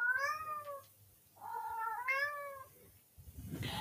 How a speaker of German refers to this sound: Das ist äh, übrigens Paulines Katze, falls ihr sie auch mal hören wollt.